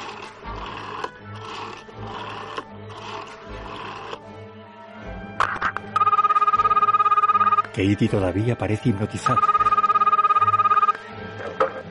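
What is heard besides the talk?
telephone ringing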